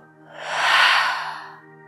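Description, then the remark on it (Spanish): A long, deep breath pushed out through the mouth after a deep held inhalation, the body loosening as it is released, a soft airy whoosh that swells to a peak and gradually fades over about two seconds, with no talking. “Contrae todo tu cuerpo, contienes la respiración, apriétate mucho y en tu próxima exhalación vas a soltarlo todo por la boca aflojando el cuerpo.”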